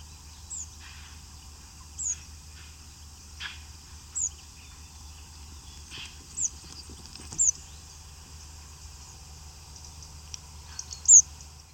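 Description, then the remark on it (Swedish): Thin, high calls of migrating birds passing overhead ring out every second or two, fairly faint above a steady low rumble, with a few soft ticks and knocks between them; recorded outside Horns båtvarv near Nyköping on 22 September. “Men du, var den där verkligen bara överträckande?”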